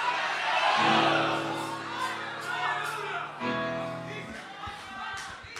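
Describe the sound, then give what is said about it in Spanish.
A church audience shouts and cheers together in response to the preacher, in a loud, sustained burst of overlapping voices, with a held sung or organ-like tone underneath and scattered whoops rising over the crowd. “¿Habrá alguien que pueda gritar gloria a Dios?”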